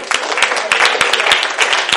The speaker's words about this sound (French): Comment on applaudit Jésus?